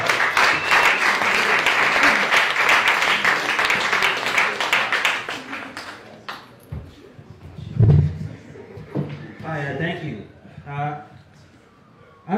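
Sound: audience applause and clapping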